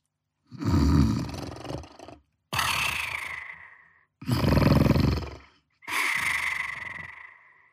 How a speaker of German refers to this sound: Jetzt hört er es. Wer schnarcht da?